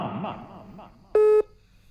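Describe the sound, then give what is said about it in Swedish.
A single loud, steady electronic phone tone sounds for about a quarter second after some murmured talk, then a short burst of another tone begins at the very end, as a phone call is placed to someone's mother. “För jag säger, vi ringer till mamma och, och så frågar vi lite grann om dig och så eh, mm.”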